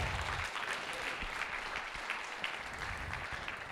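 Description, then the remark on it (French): A church audience applauding to welcome a first-time visitor, a steady wash of many hands clapping at once, dense and sustained for several seconds without a break or any voice over it. “On peut-tu l'applaudir?”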